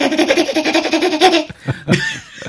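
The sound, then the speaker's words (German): A spotted hyena's giggling call: a rapid run of high, pulsing, laugh-like yelps for over a second, loud, followed by a few scattered softer calls. “Und, äh, und wir fangen an, uns zu kratzen, werden unruhig auf dem Stuhl oder sonst irgendwie, so wie ich zum Beispiel, äh, oder laufen im Zimmer auf und ab und die Hyäne macht eben diese Geräusche”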